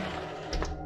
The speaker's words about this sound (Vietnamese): Tiếng động vang lên là từ bên dưới lầu trệt Khiến cho cả đám giật mình Đó là tiếng mở cửa cuốn Tiếp đến là tiếng mở cửa xếp